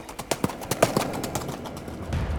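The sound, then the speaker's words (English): Ghost horses galloping at full speed through stones: a rapid, uneven flurry of sharp hoof strikes for about a second, then the beats blur into a softer, steady rumble. “In fact, they ran full speed through the stones.”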